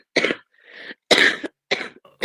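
A person coughs several times in short, loud bursts, with brief pauses and a softer breathy sound between them, and no talking.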